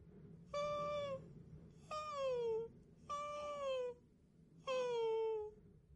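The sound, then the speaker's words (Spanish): A voice imitates a pained, bark-like yelping: four drawn-out, whining cries that each slide downward in pitch, spaced about a second apart, fairly loud with no talking. “Ha estado emitiendo una especie de ladrido.”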